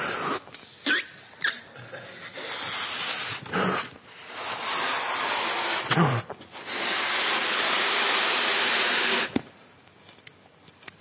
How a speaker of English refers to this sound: We've got balloons. I was thinking I wanted to blow a balloon up a bit like this.